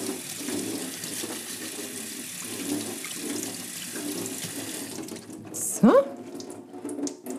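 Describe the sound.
A kitchen tap runs steadily for about five seconds, an even hiss of cold flowing water with black beans being rinsed beneath it, then shuts off, followed by a brief squeak and a short spoken word.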